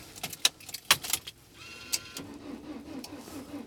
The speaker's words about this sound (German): Hoffentlich startet die scheiß Karre jetzt.